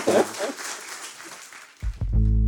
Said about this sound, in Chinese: 好，大家是不是给两位讲者热烈的掌声？谢谢他们，谢谢。